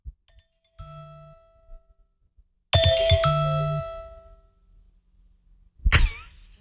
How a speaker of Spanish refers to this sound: Esa es mi, motivación todos los días cuando suena la alarma. ¿Quieren, ¿Quieren escuchar mi alarma?